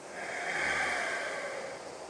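A long, steady exhale through the nose after holding the breath in the lungs, a soft breathy rush that swells slightly and then fades over about two seconds, quiet, with no talking; part of a deep-breathing relaxation exercise done while sitting.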